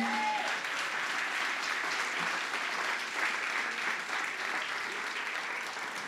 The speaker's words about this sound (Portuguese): Jesus Cristo, aplauda o Senhor nesse momento.